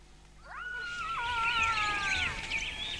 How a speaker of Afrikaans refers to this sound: Hulle kan nie in ons hok kom nie, nê, nee, mamma? Vra sy benoud wanneer sy die jakkalse hoor